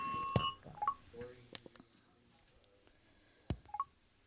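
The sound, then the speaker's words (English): Short electronic phone tones signaling an incoming call chirp in a quick rising-falling pattern, repeating after a pause, with a couple of sharp clicks between them, clear with no talking. “And now I'm going to show you what it sounds like when I receive a call.”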